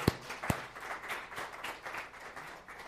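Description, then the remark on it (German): A crowd applauds a youth worship group in a steady, dense patter of many hands clapping, with a couple of sharper, louder claps standing out near the start; no one speaks over it. “Einfach, ich finde einen coolen Applaus für unsere Jugend.”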